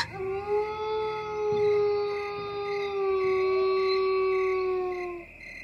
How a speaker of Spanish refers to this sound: Y así nos quedamos esperando al lobo. El primer aullido no vino del bosque, sino en dirección de la granja.